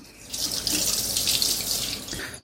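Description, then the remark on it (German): About 375 millilitres of water pours steadily into a cooking pot for about two seconds, a bright splashing rush that stops abruptly, with no talking. “Dann kommt auch noch mal wieder Wasser dazu.”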